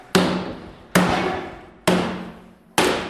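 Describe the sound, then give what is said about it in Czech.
Four sharp, evenly spaced hammer blows knock the metal hoops off an oak barrel to take it apart, each strike loud with a short metallic ring decaying before the next; no one speaks. “A abych se k tomu dostal, tak se musí vzít to kladivo a ty obruče se musí”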